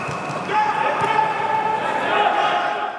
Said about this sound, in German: Weil die Corona-Zahlen nach dem Sommer schnell wieder angestiegen sind, war es ebenso schnell wieder vorbei mit Fans in den Stadien. Und der Fußball hörte sich so an.